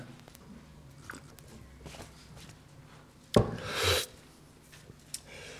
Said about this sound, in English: Let's have a sip of water.